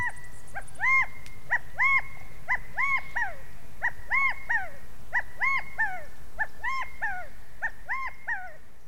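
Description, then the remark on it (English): A California quail gives its rally call over and over, a loud, clear three-note phrase repeated in a steady rhythm against a quiet outdoor background with no talking. “It's a rally cry, like the little California quails are yelling, In unity we”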